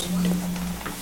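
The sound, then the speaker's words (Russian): An angle grinder at the construction site of a hotel called Winterfell whines with a steady, low mechanical drone for most of a second, holding one even pitch before cutting off, over a faint background murmur. “Болгарка, мне кажется. Это у вас или у нас?”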